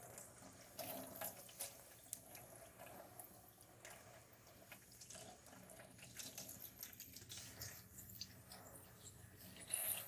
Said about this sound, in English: I'm rinsing a thing.